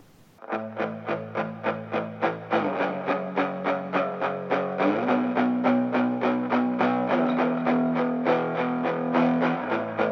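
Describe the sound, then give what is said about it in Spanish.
Bright, upbeat rock music: distorted electric guitar chords strummed in a fast, steady rhythm, shifting chords every couple of seconds, loud with no singing yet. “Y me parece una canción, aparte de muy bonita, muy luminosa,”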